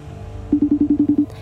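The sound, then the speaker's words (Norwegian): A quick burst of eight short, evenly spaced telephone dialing beeps, fairly loud, lasting under a second over a low background hum, placing a phone call to Tromsø, Norway. “En telefon til Tromsø og doktorgradsstipendiat i historie”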